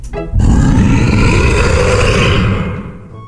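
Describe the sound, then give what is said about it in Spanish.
A single loud, sustained growling roar from a human voice imitating a monster, rough and guttural, lasting about three seconds before tapering off, alone with no talking. “Abrí la boca lo más grande que pude y llené mis pulmones de aire para exhalar grandes rugidos apestosos y terribles, que con seguridad lo harían regresar a su lugar.”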